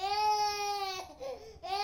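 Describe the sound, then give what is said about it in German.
A two-year-old boy, Johann Sebastian Bach's 16th child, cries in a long, sustained wail that breaks off briefly into a wavering whimper, then rises again into another loud, high-pitched cry. “Der Zweijährige ist Johann Sebastian Bachs 16. Kind.”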